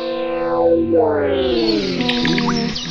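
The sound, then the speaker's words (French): Dense, heavily processed experimental electronic music from a record, with strange, distorted voice-like tones that sweep down and then back up in pitch, thick with echo and effects, loud and steady throughout. “Comme vous pouvez l'entendre euh, avec la musique qui passe derrière moi, il y a aussi beaucoup de voix étranges dans ces disques.”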